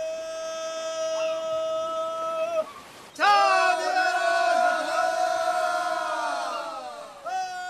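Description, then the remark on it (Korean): A crowd of voices sings a Korean work song used when dozens of people haul a heavy boat ashore before a typhoon. Two long, drawn-out sung phrases are separated by a short pause, the second louder and fuller. “태풍이 오기 전에 배를 무트로 올리며 부르는 배에 올리는 소리입니다.”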